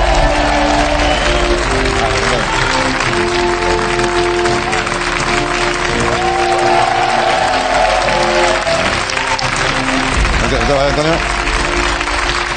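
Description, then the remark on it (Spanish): A live-show audience applauds a thermometer being inaugurated, loudly and steadily for about twelve seconds, a dense crackle of many hands clapping, with voices and scattered cheers mixed in and a low hum underneath. “Venga, un aplauso para él.”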